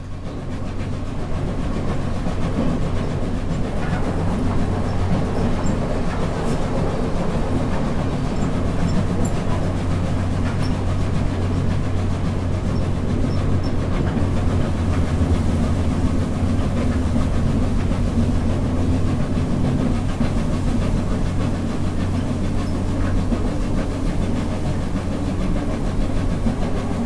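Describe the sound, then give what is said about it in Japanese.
A steam locomotive pulling heavy carriages chuffs steadily and hard as it climbs an uphill grade, a loud, continuous rhythmic rumble over a deep mechanical drone, with no voices. “やっぱりこう下り坂とか、平坦なところそれから上り坂、うんうん、これ違うっていうのがね、はい、聞いてみますか次ちょっと聞かせてもらってもいいですか、はいお願いします次のねシュシュポッポ聞いてください”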